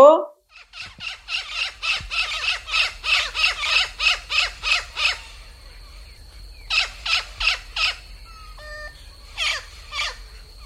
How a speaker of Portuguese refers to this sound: Descobrimos o bicho da semana, o sapo martelo, também conhecido como sapo ferreiro, Boana Faber.